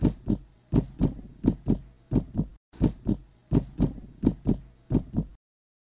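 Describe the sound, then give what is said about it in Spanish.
A pounding heartbeat thuds loud in a steady, fairly quick rhythm, about two beats a second, with a brief break midway before the beats resume, then it stops abruptly. “y los perros, efectivamente, se han ido en un silencio inusual, salvo por los tambores de mi pecho que ahora suenan con más fuerza.”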